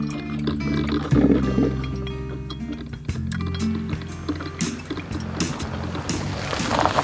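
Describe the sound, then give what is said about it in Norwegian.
A coffee maker brewing indoors at home on a fine summer day, with steady gurgling and bubbling liquid sounds over a constant low hum, rising in intensity near the end while a radio plays music faintly in the background. “Utforbi synger fuglene, og inne står kaffetrakteren og går med radioen i bakgrunnen.”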